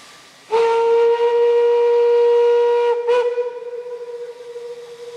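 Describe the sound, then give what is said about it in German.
A loud, steady steam train whistle at a railway station blasts for about two and a half seconds, briefly cuts out, then sounds again and fades into hissing steam, with no voices present. “Das hörte man vor dem Zweiten Weltkrieg auf vielen deutschen Bahnhöfen.”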